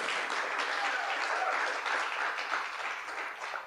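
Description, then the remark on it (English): An audience in a theater in Omaha claps steadily throughout, a dense, sustained wash of applause from many hands, with no one speaking over it. “so let's hear it for Chip Davis Theater.”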